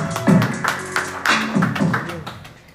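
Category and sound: crowd, clapping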